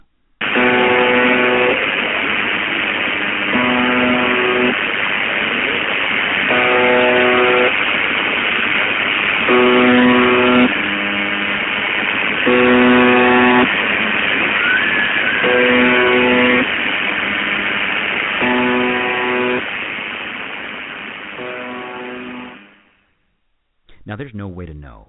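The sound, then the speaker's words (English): Electronic droning from a radio broadcast, pulsing in steady, evenly spaced bursts over a continuous hiss for about twenty seconds, with faint, garbled voices underneath before it abruptly cuts out. “Now, there does seem to be garbled speech in the background during the electronic droning, which I cut out most of for you guys, so who knows?”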